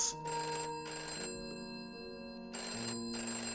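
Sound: telephone ringing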